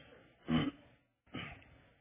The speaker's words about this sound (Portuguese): E alguns, desculpa o pigarro. Eu estou com esse pigarro há algum tempo, estou tomando um remédio que não está adiantando nada. Aliás, não estou tomando um, estou tomando três remédios.